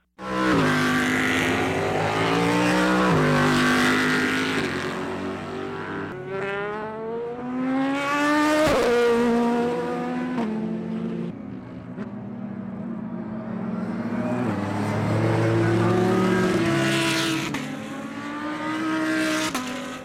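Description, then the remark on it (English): Several race car engines roar to life and rev hard, their pitch climbing and falling in sweeping surges, loud, with overlapping engines filling the scene and no talking. “Drivers, start your engines.”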